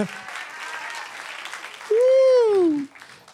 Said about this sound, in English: Come on, give the Lord a clap offering of praise. Otherwise, I won't move on.